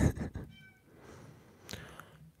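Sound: cat meowing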